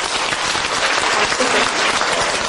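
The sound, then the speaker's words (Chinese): An audience breaks into sustained applause to encourage a participant during a talk, a dense, steady wash of many hands clapping at once that holds at an even, fairly loud level for the whole stretch with no voices standing out. “那现在，马 那 上 现在马上给他掌声鼓励一下，好不好？”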